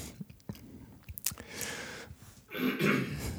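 A person clears their throat in a rough, raspy rumble near the end, after a few soft mouth clicks and smacking noises; their throat is scratchy as they start speaking into a switched-on microphone.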